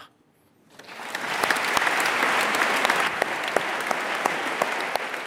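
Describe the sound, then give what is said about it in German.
Sustained applause from the Federal Assembly (Bundesversammlung) for Walter Thurnherr after eight years as Federal Chancellor rises quickly after a brief quiet start, a dense, steady wash of clapping with occasional sharper individual claps standing out, continuing at an even level. “Der Applaus der Bundesversammlung für Walter Thunherr nach acht Jahren als Bundeskanzler.”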